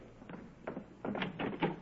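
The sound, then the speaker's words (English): A door is opened and shut as a group leaves for a Jeep parked right outside, a short run of clunks, knocks and rattling handle sounds over about two seconds, with no voices. “It's parked right outside the door. Come on, everybody.”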